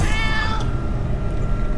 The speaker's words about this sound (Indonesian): Semakin berjalan mendekatiku, kucing itu terasa semakin besar dan semakin mendekatiku.